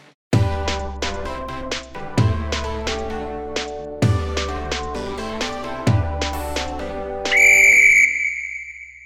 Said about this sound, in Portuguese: Roda a vinheta!